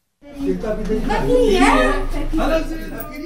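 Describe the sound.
Several excited voices overlap in lively chatter, with children's voices and bits of laughter mixed in, as neighbors welcome a Yazidi family back home to their village of Tel Haseb in Iraq.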